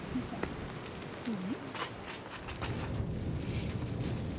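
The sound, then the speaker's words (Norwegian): Strong wind blasts straight into the microphone outdoors in heavy rain at a grave site in Galicia, Spain: a loud, continuous roaring rumble with gusty buffeting that never lets up, and faint traces of a voice almost buried beneath it. “Nå blir vi tatt av vinden her.”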